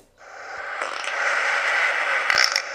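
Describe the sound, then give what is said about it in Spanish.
A single long, raspy recorded fart sound is played, stretching for nearly three seconds, swelling slightly and sputtering toward the end, fairly loud, with no voices over it. “Vamos a escuchar unos cuantos peos más porque esto siempre es divertido”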